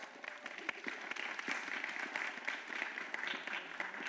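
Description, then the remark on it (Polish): An audience at a book presentation applauds the book's author, who is present in the hall. Many hands clap steadily in a dense, continuous patter that holds at an even level for several seconds. “Ogromne brawa!”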